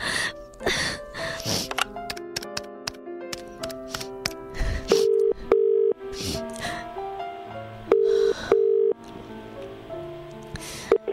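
A telephone ringback tone sounds in short steady mid-pitched pulses, two pairs of beeps, over a busy crackling patter like rain, with no one speaking.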